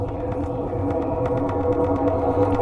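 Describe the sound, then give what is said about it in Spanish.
A speed-boost power-up effect in a zombie video game, letting the player run without being attacked: a dense, steady electronic drone with a rapid pulsing rhythm, loud, lasting a few seconds with no voices. “Ese es el de impulso.”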